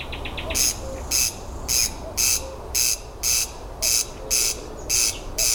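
A common cuckoo calls faintly in the background, its soft two-note cry repeating three times, beneath loud, regular buzzing bursts that pulse steadily in the foreground, apparently an old watch being wound.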